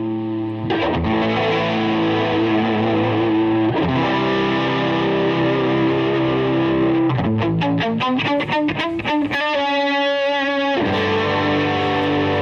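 Electric guitar played through distortion and effects during a live guitar ASMR stream on Sunday night, March 26, with sustained, heavily saturated chords and a stretch of fast rhythmic strumming toward the end. The playing is loud and continuous, with no voices.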